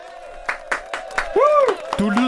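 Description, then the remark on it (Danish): A short burst of applause, a handful of sharp, evenly spaced claps, with voices and some tonal vocal sounds running underneath. “du får yes. lige bifald.”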